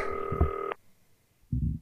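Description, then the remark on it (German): A green telephone rings: a steady electronic ring tone lasting about three-quarters of a second, then a short pause before a second ring begins and cuts off. No voices are heard. “So, das grüne Telefon zur Seite. Es klingelt.”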